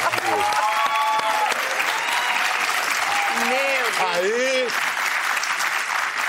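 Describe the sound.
An audience applauds a TV journalist in a dense, steady wash of clapping that holds at an even, fairly loud level throughout, with a voice briefly speaking over it partway through.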